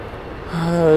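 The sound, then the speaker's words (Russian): An airplane flying overhead: a low, steady engine drone with a humming tone fades in halfway through and keeps growing louder as the aircraft approaches. “Я прошу прощения, надо мной самолеты летают.”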